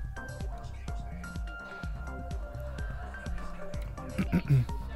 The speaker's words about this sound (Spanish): Voy a tomar un poquito de agua.